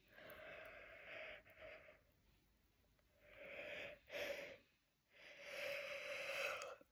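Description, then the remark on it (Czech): A few long, breathy yawns follow one another closely during an energy cleansing session, each a drawn-out voiced exhale with a slight wheezy tone, separated by brief quiet pauses; nobody speaks. “Jo, čím je to silnější, tak tím víc zívů.”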